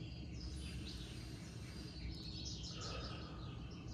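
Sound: small bird singing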